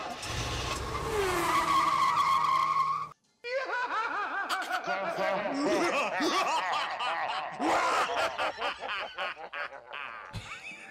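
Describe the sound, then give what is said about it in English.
A car revs and skids with loud, sustained tire squeals, followed after a brief gap by wavering high-pitched screeching, with what may be snickering laughter mixed in. “guy's very evil driving his car.”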